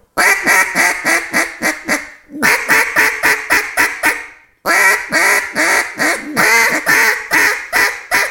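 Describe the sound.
A duck call blown to imitate a mallard hen: three loud runs of rapid, raspy quacks, each a steady descending-paced series, separated by brief pauses, with no talking.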